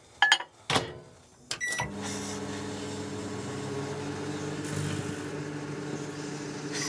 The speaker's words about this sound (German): Und was hat das jetzt mit dieser Weintraube zu tun? Was kann die jetzt ausrichten? Zeige ich Ihnen. Auseinanderschneiden. Ab damit in die Mikrowelle.